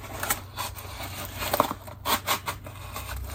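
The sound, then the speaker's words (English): Dull scissors chew through material in a series of uneven, scratchy snips, moderately quiet, with no voices over them. “Just dull scissors.”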